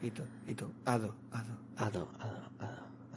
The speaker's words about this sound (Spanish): Ostras, no me esperaba yo este eco.